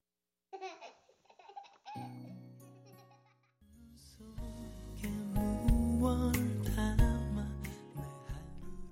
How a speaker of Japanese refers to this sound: あのイントロの赤ちゃんの泣き声とか、ね、タイトルからも分かるように、まあ、自分のもとに生まれてきた子供に感謝する曲ですね